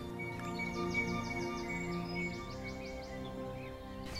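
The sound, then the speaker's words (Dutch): About twenty birds sing at once in an early morning chorus, with repeated rapid chirping trills rising above a steady low background hum, continuous throughout. “Het is weer vroeg in de ochtend. Bijvangst. Ehm, er heeft zich al een vogel of twintig gemeld en dan gebeurt het volgende.”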